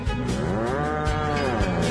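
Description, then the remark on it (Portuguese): An old ox moos in one long, loud, sustained bellow that swells and then falls in pitch, heard alone with no talking over it. “E afasta pra lá, boi velho nojinho!”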